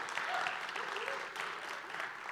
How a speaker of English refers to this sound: Everybody, give a round of applause to the kids who are with us this morning.